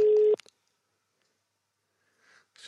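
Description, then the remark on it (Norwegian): A steady electronic telephone ringing tone sounds loudly for a split second as a phone call is placed, then cuts off with a click as the line connects, followed by near silence and faint line noise. “Vi ringer opp til superstjernen vår.”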